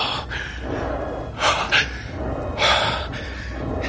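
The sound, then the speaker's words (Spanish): Heavy, ragged panting of someone out of breath after a physical struggle, with a few loud gasps for breath rising out of steady huffing, and no talking. “Está jadeando.”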